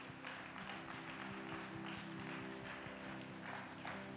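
A crowd applauds steadily for two young preachers, dense overlapping claps filling the room at a consistent moderate level throughout, with no one speaking over it.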